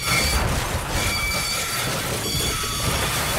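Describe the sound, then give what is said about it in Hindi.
A train rumbles steadily, a dense mechanical roar with thin, high metallic squeals of braking wheels drifting over it, as the fast-running train slows and stops at Siddhipur, a small village with no platform, around 11 at night. No one speaks. “रात के तकरीबन 11 बजे आखिरकार तेज दौड़ती रेलगाड़ी धीमी होते होते सिद्धिपुर पर जाकर ठहर गई”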